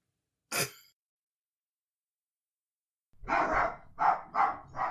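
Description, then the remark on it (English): A short breathy sigh, a pause, then a dog barking angrily: a long growling bark followed by three quick, sharp barks in a row. No talking. “My dog is angry about this.”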